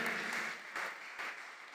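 An audience applauds together, a dense, steady wash of clapping from many hands filling the room at moderate volume, with no one speaking over it.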